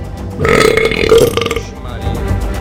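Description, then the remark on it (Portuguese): A long, loud, drawn-out burp rumbles for over a second, tapering off into a quieter gurgling tail. “só que eu tomo uma dose fica assim, arrotando direto.”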